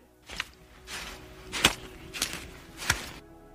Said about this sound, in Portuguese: Durante a pescaria, eu comecei a ouvir uns passos pisando na lama.